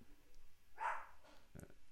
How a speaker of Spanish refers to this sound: Ahí aparece Lucho en el, podcast, el perro, el perro de, esta familia.